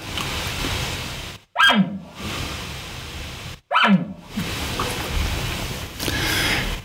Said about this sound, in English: so many people when they just hear a nervous bark, they they think it's you know it's it's over that's it um, the elk are done and that's not the case at all but really what also got me thinking was because there's a nervous bark